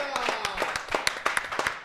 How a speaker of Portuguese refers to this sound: Aplauda, irmãos. Glória a Deus! Glória a Deus!